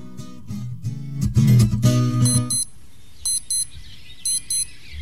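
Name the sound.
alarm clock ringing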